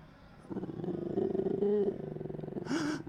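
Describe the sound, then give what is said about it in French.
A low, guttural growling roar rumbles for a few seconds in a forest, swelling and wavering before ending in a harsher, breathy snarl. It sounds somewhat muffled and distant, with no voices present. “Et c'est là que, un peu plus profondément dans les bois, vous êtes certain d'entendre les bruits gutturaux.”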